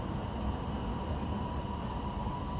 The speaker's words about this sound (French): À l'issue donc euh, de plusieurs heures passées dans le métro de Pékin, je n'ai parcouru que deux lignes et demie en fait.